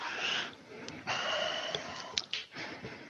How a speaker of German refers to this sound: Also von daher, äh, der, der, der atmet gerade nochmal tief durch.